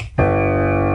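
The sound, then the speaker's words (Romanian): A single piano note starts abruptly after a brief quiet moment and rings on steadily, with a rich, buzzy tone full of overtones and no voices over it. “Nota sol a unui pian sună așa.”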